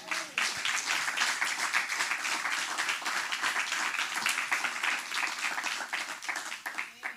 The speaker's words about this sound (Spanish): Eso, eso merece un aplauso del Señor.